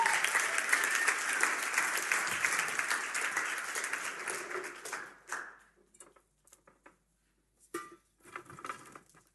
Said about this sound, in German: Gebt ihnen mal einen Applaus und kommt mal hoch.